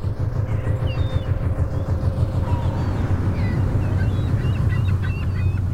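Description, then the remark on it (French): Calm ocean swell in the North Atlantic, heard from aboard a fishing trawler: a steady low engine drone under continuous washing water that rocks gently and ripples at the surface, with faint high bird calls drifting in above. “J'ai enregistré la fine polyphonie de l'océan apaisé. La houle qui oscille doucement, l'eau qui frise à la surface.”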